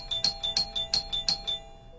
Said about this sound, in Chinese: 千一娇脑海里百转千回之时，门外的门铃还在响个不停。